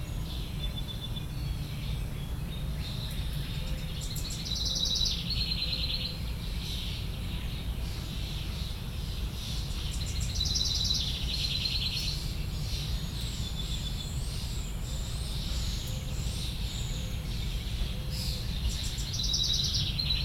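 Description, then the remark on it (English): Backyard birdsong in spring, May 2020, in Bloomington, Indiana: bright, high warbled phrases repeat every few seconds, with fainter chirps between them, over a steady low rumble of background noise. “You've been listening to Backyard Birdsong, May 2020, Bloomington, Indiana.”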